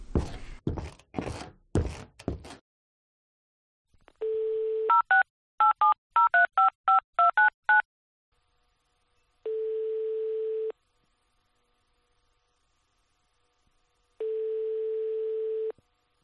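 A few clunks as a home phone handset in the kitchen is picked up after one o'clock at night, a brief dial tone, then a quick run of beeping keypad tones, followed by two long, evenly spaced ringback tones.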